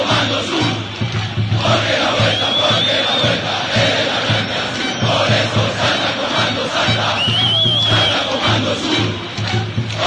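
A large crowd of Alianza Lima football fans chants loudly and continuously in a stadium, voices merging into a dense roar with a steady rhythmic pulse and occasional shrill whistles rising above it.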